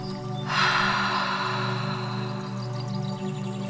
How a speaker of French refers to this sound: Encore une fois, prends une grande inspiration par le nez. Bloque ta respiration et expire profondément par la bouche.